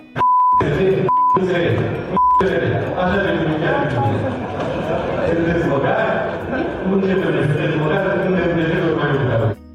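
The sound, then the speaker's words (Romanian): Three quick censor bleeps sound in the opening seconds, cutting into loud shouted insults, and then the angry shouting voices carry on unbroken to the end. “Strigați de alea cu bip?”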